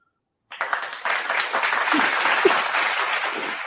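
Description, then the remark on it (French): A crowd applauds in a steady but subdued patter after a brief silence, the clapping sounding lukewarm and dutiful rather than enthusiastic, holding an even level without swelling or cheering. “ils applaudissent pas avec beaucoup de vigueur.”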